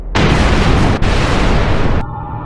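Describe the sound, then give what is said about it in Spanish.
A loud, roaring sci-fi movie explosion effect bursts in abruptly and rumbles densely for about two seconds, with a brief punch midway, then cuts off into a low fading hum. “Entonces, ¿qué hay de todas esas explosiones y ruido de cohetes que escuchas en las películas de ciencia ficción?”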